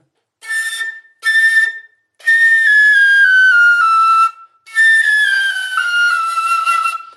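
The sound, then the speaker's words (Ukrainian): A frilka folk flute plays alone: two short bright notes, then two long breathy tones that glide slowly downward in pitch, steady and fairly loud with a rich airy tone. “Носопілка так не може, а фрілка може.”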